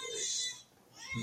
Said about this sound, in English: Yeah, I don't know if you can hear the crying baby in the background.